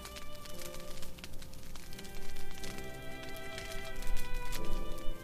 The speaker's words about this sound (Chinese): 你已经找到一处安静、私密的空间，躺下来，听着房间壁炉里温柔而疗愈的柴火燃烧声